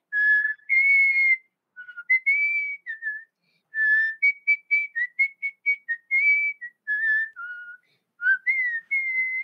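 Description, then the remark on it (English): A person whistles a lively, bouncy melody on its own, with short quick notes and a few longer held tones, steady for several seconds. “So, right at this point, we start to hear the whistles. Oh, yeah, the whistles are going.”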